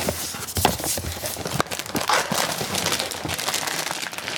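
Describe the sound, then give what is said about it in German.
Papery crinkling and scraping with a few sharp clicks and rustles as the flaps of a blue cardboard box for an Echo 4 smart speaker, sealed with a small adhesive strip, are opened with a finger and folded back, fairly steady throughout. “Da kann man mit dem Finger einfach aufmachen. Wir klappen die mal auf.”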